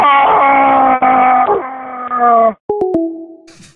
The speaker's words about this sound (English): Well, I'm going to leave y'all with a scream. Let's do it.